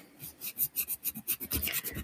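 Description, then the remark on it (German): A nail file rasps back and forth across a broken fingernail in quick, regular strokes, about a dozen short scratchy bursts with a dry, hissing texture, heard on its own with no talking. “Ich bin gerade aufgestanden, habe mir eine Nagelfeile geholt”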